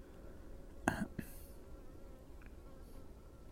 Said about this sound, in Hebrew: הנה מצא, דבורה מצא סוף סוף את האזור הדביק, מצא את היופי.